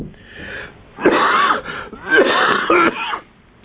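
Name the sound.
coughing fit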